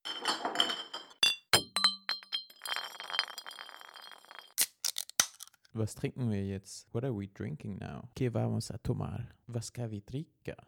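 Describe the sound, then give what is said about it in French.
Several bright clinks of drinking glasses touching together ring out, one with a lingering bell-like tone, followed by a few sharper taps before people start talking. “T'entends ce bruit là Ouch. Oh ça fait un joli, un joli son de, de cloche, j'allais dire, mais non.”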